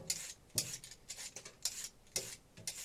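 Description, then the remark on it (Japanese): A vegetable peeler scrapes a carrot in quick, rhythmic rasping strokes, about two or three per second, fairly loud, with no talking. “私の好きなピーラーですねまたちゃんと手をもらってピーラーの音が届いてる前カレーの時結構ちゃんとピーラーをシャッシャッシャッってやる音もねちゃんと入ってましたピーラー楽しいんですよ”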